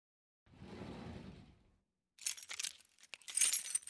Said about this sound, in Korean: 이윽고 노인이 서랍을 열고 커다란 열쇠를 꺼냈다.